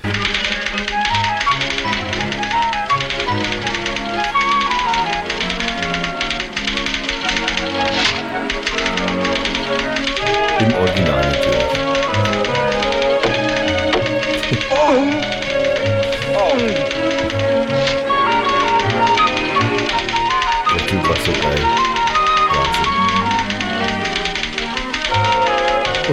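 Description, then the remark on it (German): Rapid, continuous typewriter clatter of keys striking in quick irregular bursts, loud, running the whole time over a steady tonal background that could be music or voices, from a played video of a pantomime typing act with no real typewriter. “er hat ja keine Schaltmaschine, das ist stehen. Er macht das ja in der Pantomime.”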